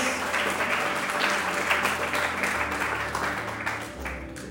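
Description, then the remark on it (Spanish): A church audience applauds God during a morning service, a dense wash of many hands clapping at once, loud and sustained throughout before easing slightly near the end, with a faint low hum underneath. “¿Alguien puede aplaudirle fuerte al Dios que cumple sus promesas?”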